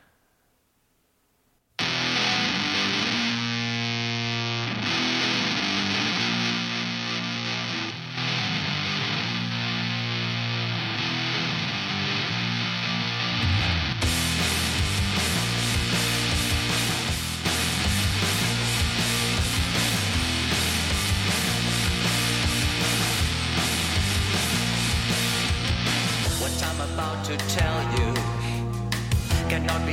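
A band's song plays loudly after a second of silence, opening with steady sustained chords before drums and fuller instrumentation crash in about halfway through, driving on to the end.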